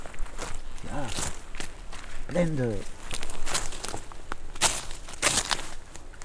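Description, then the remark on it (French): Footsteps crunch and rustle through dense brambles, ferns and perennial plants overgrowing an unmaintained forest with views of the Pyrenees, a steady shuffle of crackling vegetation, with a man speaking over the sound of walking. “C'est envahi de, de ronces, de fougères un peu de, de, plantes vivaces qui, colonisent ces, forêts”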